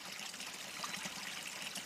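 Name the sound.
water trickling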